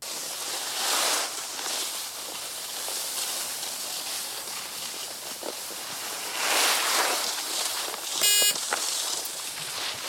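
A snow sled slides over snow with a steady, hissing scrape that swells into louder swooshes twice, plus a brief sharp squeak near the end. No one speaks.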